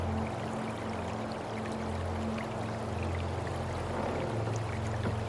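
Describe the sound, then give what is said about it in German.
A small boat rocking from side to side on water in the reeds of a shore, with steady sloshing and lapping over a constant low hum, continuous throughout, with no voices. “Ein wenig schwankt es von einer Seite zur anderen, doch sobald du sitzt, wird sich das sanfte Schaukeln beruhigen.”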